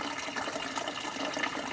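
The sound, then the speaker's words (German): Drinking water is poured in a steady, continuous splashing rush for the whole moment, moderately quiet, with no voices. “Und ein Wasser, das mir wirklich ganz angenehm weich schmeckt und, also, und, und wie, ja, wie Öl eigentlich runterläuft.”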